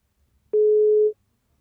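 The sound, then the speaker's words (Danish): A single steady electronic telephone ringing tone of an outgoing call to the editor-in-chief of the media outlet Altinget sounds once for about half a second, clear and fairly loud, with no voices around it. “Nu øh, ringer jeg til Jakob Nielsen, som er ansvarshavende chefredaktør på det medie, der hedder Altinget”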